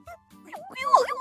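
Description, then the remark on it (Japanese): A human voice imitates a distressed white dog being roughly delivered, letting out a short run of wavering, whimpering whines that rise and fall in pitch. Moderately loud, lasting about a second. “みたいな感じの、感じで、なんか、もう、あの宙に浮きながら、あの、首輪が繋がれてるみたいな感じで、なんか、で、その犬の声やった。”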